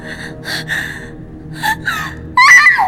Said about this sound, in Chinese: 那一瞬间，向南风听见盖头下面传来了一声惊呼，那声音分明是路遥在喊